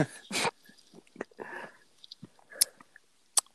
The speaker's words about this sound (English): Uh, it's like mm, take a sip. Just take a sip.